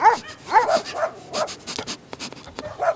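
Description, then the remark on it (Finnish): Dogs in a dog park bark and whimper in quick, irregular bursts, high-pitched yips and whines mixed with short barks, moderately loud, with no one talking. “Koirapuistoissa yritin tavata toisia koiria.”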